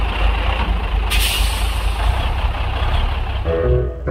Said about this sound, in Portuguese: E diz aí que naquele instante um caminhão encostou no posto.